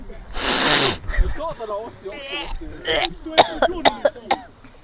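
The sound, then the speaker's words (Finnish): A person imitates a beaver's sneeze with a loud, breathy burst of hissing air, followed by sniffly snorts and a run of short, sharp nasal bursts. “Olemme kiinnostuneista majavoista ja aiomme nyt esitellä teille majavan aivastuksen.”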